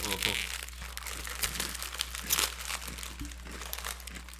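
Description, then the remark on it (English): A bag of Boulder potato chips crinkles and rustles, with sharp plastic crackles scattered steadily over a few seconds, as if being pulled open, while faint voices murmur in the background. “I have a bag of Boulder chips with me.”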